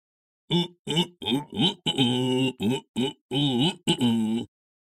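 A series of about nine deep, throaty grunts from a gigantic creature covered in long white fur entering a cave, loud and rhythmic, with no talking. The voiced bursts come in quick succession, some short and clipped, others drawn out and wavering.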